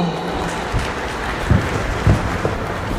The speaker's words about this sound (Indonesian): Tepuk tangannya